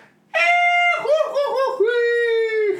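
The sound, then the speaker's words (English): A single loud voice imitates Goofy's famous scream, a long cartoonish holler starting as a sustained yell, warbling in the middle, then stretching into a final drawn-out cry. “oh gosh, oh hi, Mickey, oh yeah, and then you got the notorious goofy scream.”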